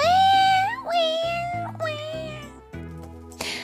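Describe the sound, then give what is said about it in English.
A voice imitates a baby sister crying in her crib, letting out about four drawn-out, wavering wails in quick succession, loud, over soft steady music. “This is what he could hear his baby sister crying in her crib, which sounds like this.”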